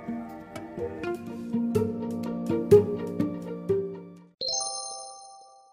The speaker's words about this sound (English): That's the sound of the hot chocolate maker. Oh, yeah, it is. Yeah, it is.